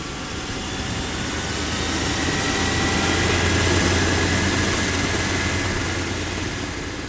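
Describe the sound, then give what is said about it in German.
A rescue helicopter carrying an emergency doctor, pilot and paramedic on an emergency call powers up and lifts off, its steady rotor drone and high engine whine swelling to a loud peak midway before easing slightly. No one speaks. “schnappen ihre Helm und Funkgeräte, pressieren zum Helikopter und der hebt ab.”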